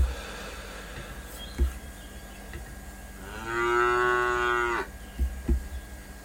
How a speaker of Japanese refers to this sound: はい来ていただいた方はちょっと牛の鳴き声で出迎えさせていただいております。